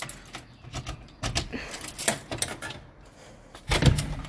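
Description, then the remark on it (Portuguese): A door is handled with a series of light clicks and rattles as a grandfather leaves the house, then closes with a heavier low thud near the end. No one speaks. “ok, o meu avô está a assim sair de casa e é um barulhinho fechar a porta.”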